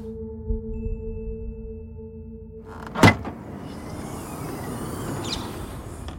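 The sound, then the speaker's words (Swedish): A car trunk pops open outdoors on a chilly March day in the German town of Bad Dürheim. One sharp latch clunk is preceded by a low steady mechanical hum and followed by breezy open-air ambience. No one speaks. “öppnar bagageluckan till sin bil.”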